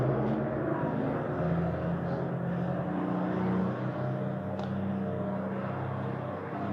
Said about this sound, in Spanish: Pero está pasando un camión de la basura.